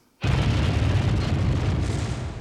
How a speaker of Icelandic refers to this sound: En í dag, meira en 130 árum síðar, veit enginn hver kastaði sprengjunni. Við vitum að um 20 mindur yfir tíu að kvöldi 4. mæ 1886 lísti gulur ljósklampi skindilega upp næturhiminin yfir torkin okkur í Chicago